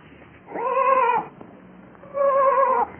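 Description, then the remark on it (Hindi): A lost sheep caught in thorny bushes bleats twice at night, two drawn-out, even-pitched cries of about half a second each, separated by a pause. Both are moderately loud and clear against a quiet background with no talking. “तब गड़रिये ने पहचाना कि ये उसी की भेड़ की आवाज है वो आवाज की ओर जल्दी से दौड़ने लगा अंत में उसने अपनी भेड़ झाड़ियों के बीच में फंसी हुई पाई”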